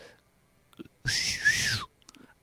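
A single loud, breathy whistle, close by, lasting under a second, its pitch rising slightly then dropping at the end, like a sharp call to get someone's attention. Faint murmurs surround it.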